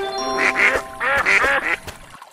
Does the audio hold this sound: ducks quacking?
yes